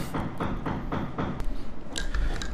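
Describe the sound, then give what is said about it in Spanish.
Rapid, steady hammering with a hammer, evenly spaced knocks, somewhat muffled, followed by a couple of sharper, brighter strikes near the end. “va a pedir disculpas por los ruidos si escucháis lo del martillo, porque esto es.”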